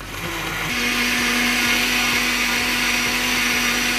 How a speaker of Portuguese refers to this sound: as mãos biomecânicas aí da tua casa vão descascar a batata doce, vão quebrar os ovos, vão botar a medida certa de creatina e vão jogar tudo no liquidificador. Ah, não esquece aí de mandar o comando ligar e desligar o aparelho.